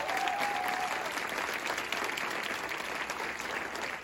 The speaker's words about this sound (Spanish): Si es, aplauso para Dios, vamos a hacerlo más fuerte.